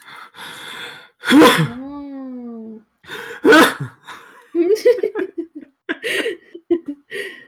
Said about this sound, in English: I didn't want to sneeze too loud.